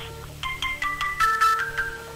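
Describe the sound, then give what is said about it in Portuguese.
A telephone rings with a melodic electronic ringtone: a quick run of short, bright tones stepping up and down in pitch, clear over a low steady hum, with no one talking. “tem um telefone fazendo barulho aqui.”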